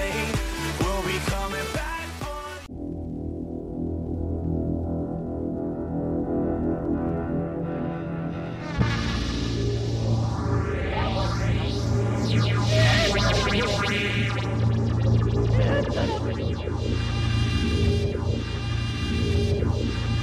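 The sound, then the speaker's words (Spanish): A loud, fast-paced high-speed jingle of the car programme Radar Speed opens with punchy beats, settles into a sustained synth swell, then bursts into driving music layered with rising whooshing sweeps like racing cars speeding past. No voices. “Amigos, bienvenidos a Radar Speed, el programa de autos para todos con esa bellísima cortinilla de alta velocidad.”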